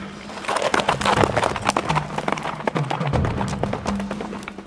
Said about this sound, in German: Das Pferd setzte sich in starken Trab.